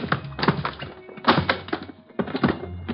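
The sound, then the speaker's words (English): Books thump and shuffle on shelves as a bookcase is searched, in three busy bursts of rummaging, with quick knocks, slides and taps, pausing briefly between handfuls. “I went to work on the bookcase first.”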